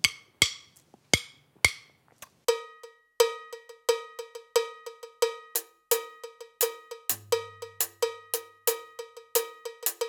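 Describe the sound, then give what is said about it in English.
A bright electronic cowbell sound, played on the rim of a tom tom on a V-Drums electronic kit, plays a steady, repeating syncopated pattern of sharp metallic clanks, fairly loud, with a low bass note briefly underneath near the end. “You might notice I'm playing a cowbell sound, but I'm playing on the rim of my tom tom.”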